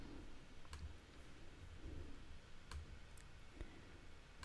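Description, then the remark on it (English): Several sharp, quiet computer clicks as someone clicks paste, trying to paste a photo, landing at irregular intervals over a low background hum, with no one speaking. “You're clicking paste, so intently.”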